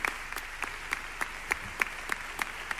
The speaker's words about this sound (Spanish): Bueno, que ha agradecido el aplauso